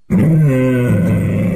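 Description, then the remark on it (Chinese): A voice imitates the feeble roar of a tiger that has lost its teeth: one loud, sustained, throaty growl held for over a second, its low pitch wavering slightly and dropping partway through, with nothing else heard. “没有牙齿的嘶吼声一点都不恐怖”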